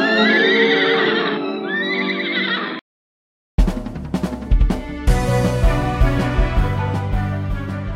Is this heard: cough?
no